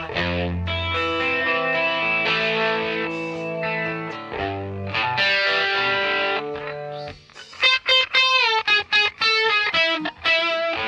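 An isolated electric guitar track from a recorded song plays alone with no backing, sustained bent notes ringing out with a warm distorted tone, then a run of quick, sharply picked notes toward the end.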